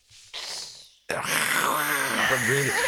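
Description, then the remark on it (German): A person imitates the deep, big-cat-like growl that koala parents make: a breathy, rasping intake followed by a loud, rough, rumbling vocal snarl with wavering pitch, without any ordinary speech. “Und wenn, ähm, wenn man in die falsche Platz ist, die ähm, Eltern von der Baby Koala macht einen Geräusch wie eine Raubkatze.”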